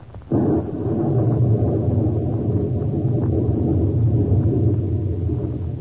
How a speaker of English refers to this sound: Listen to that rain on the roof.